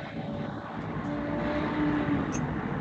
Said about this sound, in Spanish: Está pasando el tren. Mira, justo pasa el tren hasta ahora. Mira, con, su sonido en vivo.